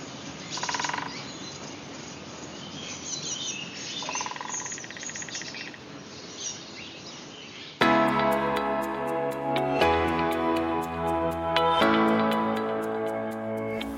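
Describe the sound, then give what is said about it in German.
Birds chirp in short bursts over a steady outdoor wind and water hiss by the Tollensesee lake, on a nature trail, then the scene cuts abruptly to louder, tonal sound with a regular ticking rhythm. “Man hört den Wind, den Tolensesee, die Vögel.”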